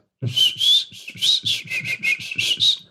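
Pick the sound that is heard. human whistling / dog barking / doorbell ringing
human whistling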